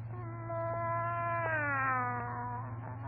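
A cat meows in one long, drawn-out, wavering cry lasting about three seconds, its pitch rising and sliding down in a yowling, caterwaul-like tone over a steady low hum.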